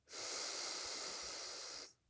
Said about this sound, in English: Gently closing our eyes, taking in a deep breath, breathing in, breathing out. Another deep breath, breathing in,